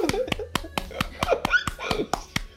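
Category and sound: crowd, hand clapping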